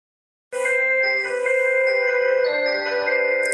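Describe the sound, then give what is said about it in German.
An electronic doorbell chime rings out suddenly and plays a few sustained, bright tones that shift in pitch, loud, with no voices over it. “Ach, das ist die Türklingel, okay.”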